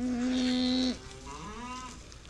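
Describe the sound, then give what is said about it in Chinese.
A cow named Ross in a cowshed moos twice: first a loud, steady, low call lasting about a second, then a softer, shorter moo that rises slightly in pitch. No one speaks. “母牛罗斯正在闭目养神。”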